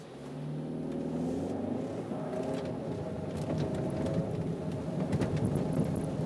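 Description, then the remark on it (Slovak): A Škoda service car driving on wet asphalt and wet tram rails: a steady, loud engine drone with shifting low tones, a continuous hiss of tires over the surface, and scattered sharp ticks toward the end. “Ale pekne ide. Normálne na tom mokrom asfalte a mokrých kolajoch.”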